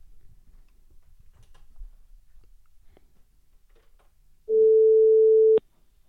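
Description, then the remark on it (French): A single steady ringback tone sounds loudly for about a second as a phone call is placed, after a stretch of quiet background with faint clicks. “On l'appelle pour savoir.”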